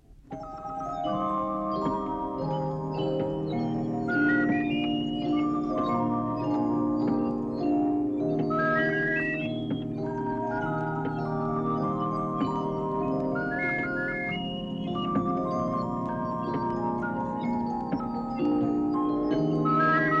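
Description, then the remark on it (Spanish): An intricate music box plays a steady, tinkling melody with layered plucked notes, while high warbling bird-whistle trills rise and fall over it throughout, with no talking. “Vamos a oír ahora otra más complicada. En esta suenan hasta silbatos de pájaros.”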